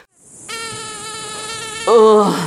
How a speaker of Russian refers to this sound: Слишком много комаров.